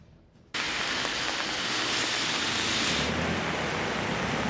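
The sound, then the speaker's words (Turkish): After a brief hush, steady rain suddenly comes in and pours continuously, a dense hiss of falling water that holds at an even level and eases slightly near the end. “Yağmur yüklü bulutlar bugün de üzerimizde.”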